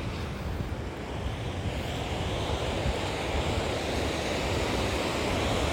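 Steady roar of surf at the water's edge of a beach, where the speaker has walked barefoot before work and waves wash over both feet, broad and continuous with no distinct pauses between breakers, with some wind rushing across the microphone; no one speaks.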